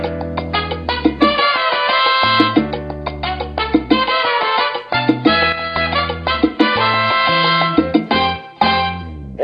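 A song plays steadily and loudly, with full instrumental harmony and chords shifting about every second or two, punctuated by rhythmic accents. No one talks over it.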